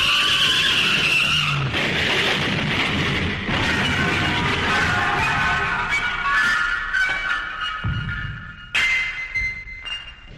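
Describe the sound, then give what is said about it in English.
A runaway garbage truck skids in the street for about ten seconds, its tires squealing loud and steady over a deep rumbling scrape. Near the end a heavy thump breaks in and the screech trails off. No voices. “She grabbed my laundry and ran into the street, directly into the path of a runaway garbage truck.”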